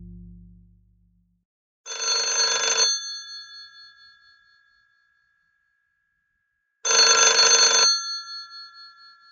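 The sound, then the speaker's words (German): A telephone bell rings twice, loud, each metallic ring lasting about a second, with a few seconds of silence between them and a brief shimmering decay after each. “Ja, warum rufst du an?”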